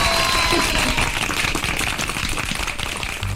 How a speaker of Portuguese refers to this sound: Palmas para Lugo! Lugo arrasa!